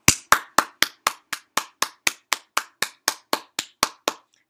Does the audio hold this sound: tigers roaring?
no